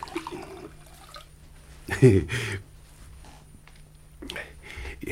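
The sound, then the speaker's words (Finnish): A short splash of liquid poured into an empty glass as a refill is offered, lasting about half a second with a faint ringing tone, set among quiet background noise and low murmuring voices. “Oi, mutta lasinhan on tyhjä. Saako kaataa?”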